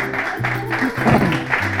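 A crowd claps steadily for a couple of seconds, a dense, continuous patter of many hands at moderate loudness, with a low hum running underneath.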